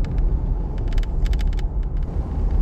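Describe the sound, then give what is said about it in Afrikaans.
Steady low road rumble from inside a moving Mahindra Scorpio SUV, with bursts of sharp, irregular knocking and rattling clicks as it rolls over a rough, uneven road. No one speaks. “'n Onnodige klop gelei het by tye opgeduik.”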